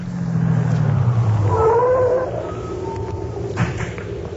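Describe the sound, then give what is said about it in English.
A car with its lights turned off rumbles and winds down as it slows to a stop, with a brief high squeal partway through, then a quieter idle-like hum with no one talking. “Whoever's driving has turned off the lights.”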